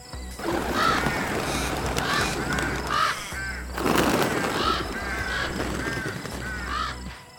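A dense flock of crows caws continuously, many harsh overlapping calls layered over a steady low rumble, building in two loud waves with no voices present.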